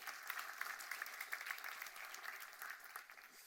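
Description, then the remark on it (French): An audience claps steadily for a few seconds to welcome the teenagers present, a dense patter of many hands with scattered sharper claps standing out, holding fairly even in loudness before easing slightly at the end. “Très bien, très bien. On peut les applaudir, merci d'être là.”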